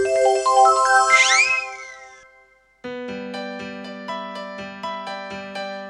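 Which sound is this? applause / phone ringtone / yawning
phone ringtone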